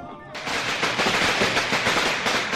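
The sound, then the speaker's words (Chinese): A string of firecrackers marking a new shop opening on Siping Street (now Zhongjie) in Shenyang in 1854 bursts into rapid, dense popping after a brief quieter moment. The sharp crackling bangs run together in a loud, continuous rattle until the end. “随着一阵阵鞭炮声，人们知道。又有一家新店在这条老街上开张了。”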